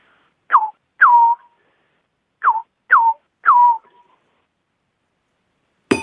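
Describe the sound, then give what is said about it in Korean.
Someone imitates a scops owl calling from a hill behind a village on a midsummer night, with five short, falling whistled hoots in two loose groups. The hoots are clear, and a brief sharp noise follows at the end. “한여름밤에 뒷동산에서 울리는 맹금류 서쪽새 울음소리 은은하게 들리는.”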